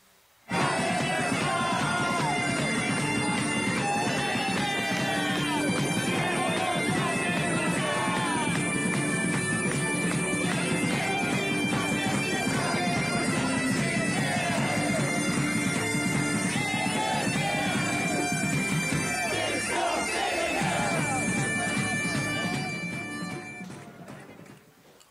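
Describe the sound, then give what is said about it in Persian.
A loud, dense crowd of protesters at a demonstration in Minsk, Belarus, roars and shouts continuously, many voices blending into a sustained clamor with rising and falling chants, fading out near the end. “اینم از صدای معترضان در های مینسک”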